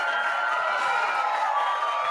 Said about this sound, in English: You're still clapping.